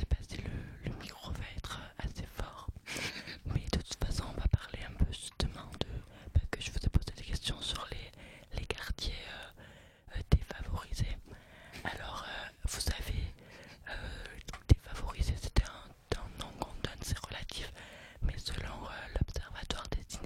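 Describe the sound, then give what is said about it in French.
Soft, breathy ASMR-style whispering close to the microphone as a quiz question is asked, continuous across the whole stretch with crisp mouth sounds and airy sibilance, no full voice. “Alors, dernière question, vous voulez la faire en ASMR Allez.”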